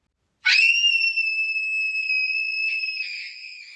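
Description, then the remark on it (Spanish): A sudden, piercing high-pitched scream of a ghostly woman turning into a corpse-like figure starts abruptly and holds a steady, shrill, loud tone for over three seconds, with a slight wavering near the end. “que se dirigió hacia él y cuya belleza desapareció rápidamente para convertirse en una figura cadavérica, soltando un grito estremecedor.”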